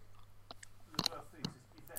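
Close-up chewing with wet lip smacks, a handful of sharp mouth clicks at irregular intervals over about two seconds, very near the microphone against a low steady hum.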